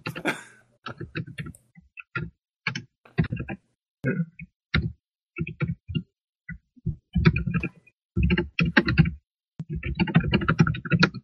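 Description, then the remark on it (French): Computer keyboard typing right up against the microphone as someone types a message into a chat: loud clattering keystrokes arriving in quick irregular bursts separated by short pauses, growing busier and denser toward the end. “Vous pouvez voir que le clavier de Bilo est extrêmement près de son micro.”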